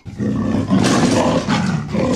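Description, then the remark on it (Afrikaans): A leopard in a pit half-covered with branches gives a loud, deep roar that rumbles for about two seconds, swelling midway with a rough, growling texture, unaccompanied by any voices. “Toe, skielik, hoor hy 'n harde brul.”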